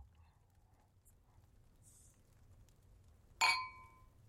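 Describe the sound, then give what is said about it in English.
A single bright clink of wine glasses touching in a toast, ringing out clearly for a moment before fading, with only a quiet low room hum around it. “Cheers.”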